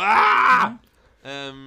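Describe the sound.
A person yells in frustration: a loud, strained vocal yell lasts over half a second, ending in a falling groan, then a brief pause and a short hummed filler sound.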